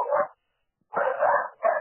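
A dog barks three times: a short bark, a pause, then a longer drawn-out bark followed quickly by another short one. No one speaks.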